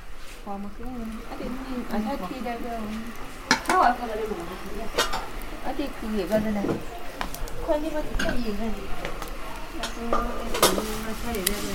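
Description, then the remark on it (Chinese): A firewood fire crackles while ersi and mixian rice noodles are being cooked over it, with sharp, irregular pops scattered over a low steady hiss, while people talk almost continuously on top of it. “能听见那个火和木头啪啦啪啦的那个感觉。”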